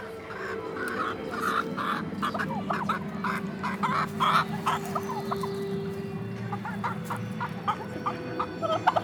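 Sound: hen clucking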